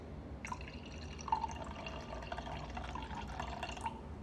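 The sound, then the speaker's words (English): Blueberry Stella Rosa wine pours into a glass in a steady trickle with soft gurgles and splashes, running for several seconds without any talking. “Give y'all a little ASMR.”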